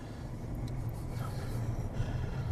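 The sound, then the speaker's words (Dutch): A car with automatic transmission drives steadily along, its low engine and road rumble filling the background at an even level with no shifts or breaks, and no one speaking. “Ik heb nog niet zo lang een auto met de automatische versnelling.”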